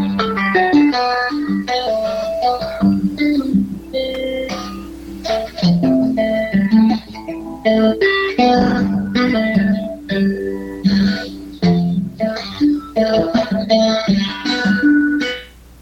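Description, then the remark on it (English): Fingerstyle guitar plays the opening stanza of a song the player is working on, a flowing melodic passage with plucked notes and chords ringing in steady succession for about sixteen seconds with no talking, then fading out at the end. “I'm wondering if I can just play this opening stanza of the song I'm working on and see if you think I can play guitar.”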